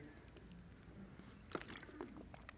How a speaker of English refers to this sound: Let me take one more sip here.